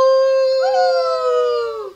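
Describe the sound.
A person imitates a wolf with one long, loud, sustained howl that rises slightly and then falls away at the end, heard alone with no other sounds.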